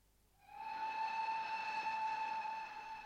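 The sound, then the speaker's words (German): A steam train's whistle blows in one long, steady blast as the train arrives in Springfield, its bright harmonic tone holding for a few seconds over a rumbling, hissing background before fading slightly at the end. “Am Spätnachmittag des nächsten Tages stieg eine Gruppe führender Republikaner in Springfield aus dem Zuge, um Lincoln offiziell von seiner Nominierung zum Präsidentschaftskandidaten zu unterrichten.”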